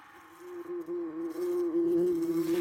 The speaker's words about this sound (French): Nous savons qu'une abeille vole en bourdonnant, et lorsque nous entendons le bourdonnement, nous voyons en nous l'abeille, ou plutôt nous la cherchons des yeux pour confirmer cette association.